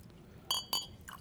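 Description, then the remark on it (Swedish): A small glass soda-water bottle being opened and poured as a mixer into a whisky drink: two bright glassy clinks in quick succession, then a faint trickle of liquid, with no one speaking. “Så, och nu så ska vi öppna, här gör han en klassiker ändå, tänder den, öppnar en liten sodavattenflaska.”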